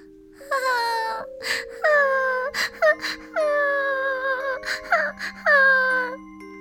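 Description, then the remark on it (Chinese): A newly hatched baby bird lying on the ground under a tree cries: about five high, quavering wails that rise then slump downward, broken by short breathy sobs, over a soft steady low hum. “这一天，艾米正低着头画画，突然听见一阵微弱的哭声。”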